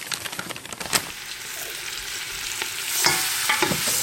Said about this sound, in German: Das Fleisch von allen Seiten gut anbraten.